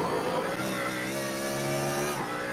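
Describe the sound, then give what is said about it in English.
The engine of a BMW race car, the Kai Kashuba machine leading the race, roars loudly, holding a steady high-pitched drone before its pitch dips and climbs again near the end, with no voices. “BMW that is uh, leading at the moment, the Kai Kashuba machine.”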